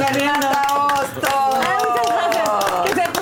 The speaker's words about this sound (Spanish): le aplauden a esa pinche vieja.